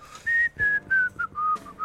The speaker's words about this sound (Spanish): Sí, y también la chifla al mismo tiempo que la bailo.